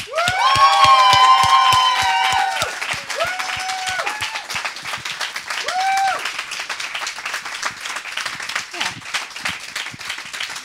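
A crowd of ICF Bielefeld people bursts into loud cheering and whooping over dense clapping, greeting those who belong to ICF Bielefeld but are not present. High voices call out near the start, then applause continues steadily as the shouts fade.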